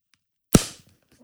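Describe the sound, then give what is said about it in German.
A glasses case snaps shut with a single sharp clack that fades quickly, followed by a faint click. No one speaks. “Äh, ein brillen Brillenetui? Ja.”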